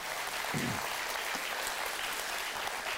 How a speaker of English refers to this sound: Um, yeah, do you want to clap? Would you guys clap for those people? That was that was really awesome.